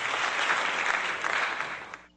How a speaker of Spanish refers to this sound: Muchos aplausos.